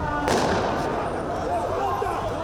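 Sharp bangs of rubber-bullet shots ring out amid a noisy crowd, with a sudden loud crack near the start and raised voices shouting throughout, as police fire to stop drug users fleeing during an anti-drug-trafficking operation on Rua Helvétia in Cracolândia, central São Paulo, Brazil.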